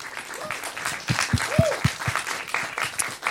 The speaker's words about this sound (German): Vielleicht könnt ihr einmal Applaus ausspenden für ihn.